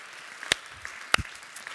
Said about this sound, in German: Komm und lass uns mal Jesus einen Applaus geben. Danke, Jesus.